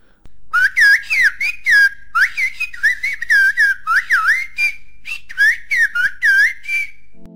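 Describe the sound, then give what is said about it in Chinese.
A person whistles in whistled language, imitating a canary to tell a companion their location: a loud, warbling series of rapid bursts, sliding and trilling up and down in pitch like a canary's song, with short pauses between phrases and no talking. “好，那刚刚那段口哨语是在模仿金丝雀，他在告诉同伴他的位置。”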